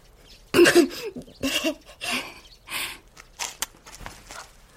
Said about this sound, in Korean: 그렇지만 숨을 들이마시기도 전 연기 때문에 목이 맵고 기침이 터져 나왔죠.